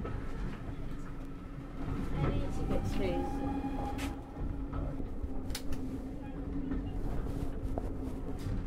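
Steady rumble of a moving steam train carriage from inside, a continuous low drone with brief metallic squeals and faint clicks riding over it throughout. It is the first service of the day, running slowly through countryside in the Forest of Dean.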